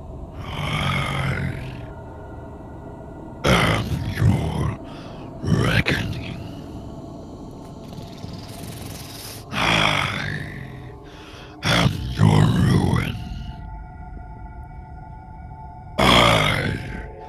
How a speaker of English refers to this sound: And you hear the booming voice echo out over the sky.